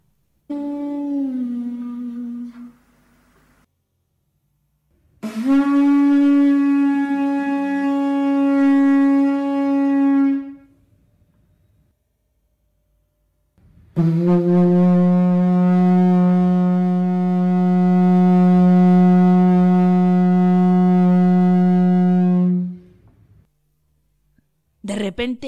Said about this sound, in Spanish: Cuando el sol se puso en el ocaso, el joven sopló la concha tres veces.